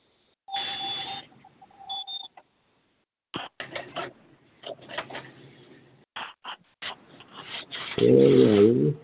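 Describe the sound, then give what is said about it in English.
An alarm clock beeps: one long electronic tone, then a quick pair of short beeps, followed by a run of clattering, ratchety clicks and a loud warbling buzz at the end. “I'm sorry, the alarm was acting crazy.”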